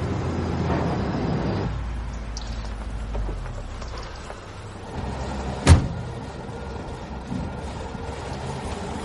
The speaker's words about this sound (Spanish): Un coche de la Guardia Civil le adelanta. Ambos vehículos paran.